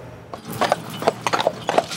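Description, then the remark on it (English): Horse hooves clip-clop on pavement in a steady, uneven rhythm, the hollow knocks clear with faint background hum, from a horse-drawn tour carriage passing slowly in Stanley Park. “The hits just keep on coming for Stanley Park horse drawn tours.”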